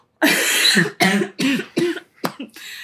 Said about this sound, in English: You're gonna make me have a winter cough fit.